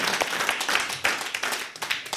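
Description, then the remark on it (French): A crowd applauds performers after an improvisation, many hands clapping steadily in a dense, continuous patter with scattered sharper claps rising above it, sustained throughout. “Alors vraiment, on peut encore les applaudir.”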